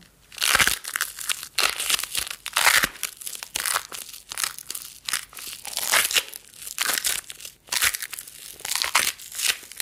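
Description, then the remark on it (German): Sticky fabric duct tape, wrapped sticky side out around both hands, is pressed together and pulled apart again and again, giving loud, crackly, crunching bursts in an uneven rhythm that resemble biting into a crisp green apple. No one speaks. “mit der Klebeseite nach außen so Tesaband, Gewebeband um die Hände.”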